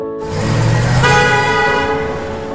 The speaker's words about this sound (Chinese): 当喇叭声遮盖了引擎声